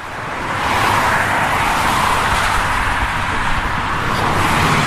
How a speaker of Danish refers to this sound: nu er vi kommet et sted, hvor det larmer lidt. Vi går langs en motorvej. Øh, jeg synes, det er lidt mærkeligt at gå her.